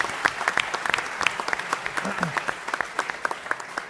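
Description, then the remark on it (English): A round of applause from a group for two people who flew more than 25 hours, with many overlapping sharp claps forming a steady crackling wash, and a brief murmur of voices underneath. “Let's get a round of applause for those two guys.”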